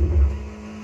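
A video game car engine drones with a low rumble and a steady humming tone, swelling briefly at the start before settling into an even idle. No one speaks.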